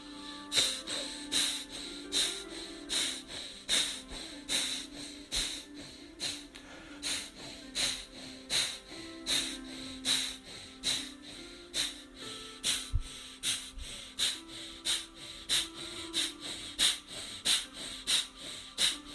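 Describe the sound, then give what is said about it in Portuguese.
Forceful, rapid breathing through the nose by a group all together for one minute, a long run of sharp rhythmic snorting exhales at a steady quick pace, fairly loud, with a soft low musical drone underneath and no talking. “Todos juntos, todos juntos, mais um minuto de respiração forte pelo nariz.”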